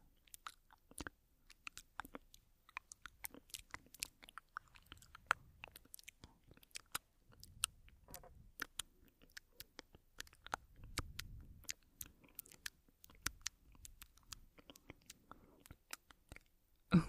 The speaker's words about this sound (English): You probably have excellent hearing, right? You can probably hear all my little mouth sounds too, like this.